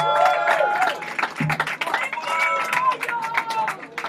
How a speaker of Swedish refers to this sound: Men det var en stor applåd! En stor applåd!